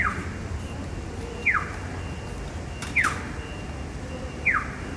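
A Japanese pedestrian crossing signal plays a chick-like "biu biu" bird call, used at crossings with light vehicle traffic, chirping in a steady rhythm, four sharp, high, downward-sliding electronic tweets about a second and a half apart, over a low, continuous rumble of traffic.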